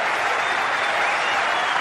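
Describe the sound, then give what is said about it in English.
A large stadium crowd in Sydney stands and applauds captain Graham Smith as he comes out to bat for his country, steady sustained clapping forming a dense, even wash of sound with no pauses, loud throughout. “And the Sydney crowd really appreciating Graham Smith's courage to come out and bat for his country.”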